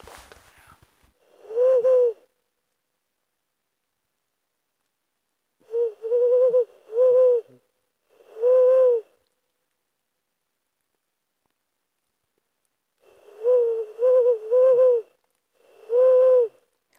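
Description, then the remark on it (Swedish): A Ural owl hoots very far away, giving a series of soft, rounded hoots in irregular groups of one to three, with quiet pauses between them and no other sounds. “Ska man ju tänka det att, att den här som vi hör nu som är, som är jättelångt bort, så, som vi knappt hör, men de har ju betydligt bättre hörsel än vad vi har.”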